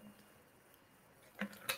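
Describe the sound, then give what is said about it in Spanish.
Someone takes a quick drink of water, with two soft, wet sipping or swallowing sounds after a moment of quiet. No one speaks. “Perdón que bebo agua.”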